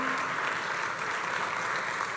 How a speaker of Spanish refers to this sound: Entonces tenemos que entender, un fuerte aplauso Señor que Él es bueno.